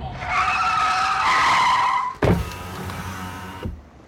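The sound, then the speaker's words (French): A car brakes hard, tires squealing in a long high-pitched skid for about two seconds before a sudden thump as it comes to a stop, followed by a low idling rumble. “Michel, arrête-toi, arrête-toi.”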